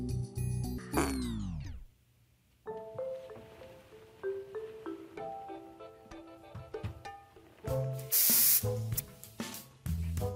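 A single loud burst of Febreze aerosol air freshener sprayed at a person because someone farted, a sharp hiss lasting about a second, cutting over steady background music near the end.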